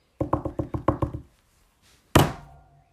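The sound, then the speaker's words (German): A quick run of about seven taps on the Ö key of a keyboard, then a short pause and one louder, sharper crack that rings out briefly. No voices. “Hör auf, das Ö anzutippen. Es wird noch kaputt gehen.”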